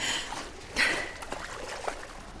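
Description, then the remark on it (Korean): Water splashes and churns in a swimming pool with a brief louder slap of water near the start, then continues as irregular splashing of legs kicking at the surface while holding onto the pool wall. “자기소개가 끝난 뒤 수영장 벽을 잡고 물장구만 실컷 치며”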